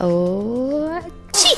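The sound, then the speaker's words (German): A single sneeze: a drawn-out voiced intake that rises steadily in pitch for about a second, then a short pause and a sharp, loud, hissing burst. “Gesundheit!”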